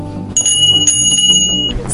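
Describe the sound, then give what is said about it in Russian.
A small horse-harness shaft bell rings out with a bright, sustained metallic tone, fairly loud, holding for over a second over a low rumbling background before fading. “Так появились колокольчики поддужные. Своим звоном они оповещали людей на яме о приближении курьерской тройки.”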